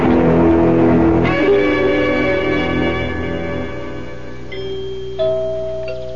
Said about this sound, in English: Did you hear the chimes? It sounds like the bell in our tower.